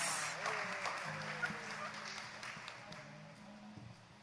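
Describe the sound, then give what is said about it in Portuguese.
A prayer group audience claps together after a raffle winner is called up to collect an image of Our Lady, Queen of Peace, a dense patter of applause that is loudest at the start and slowly thins out, with voices murmuring underneath. “Uma salva de palmas.”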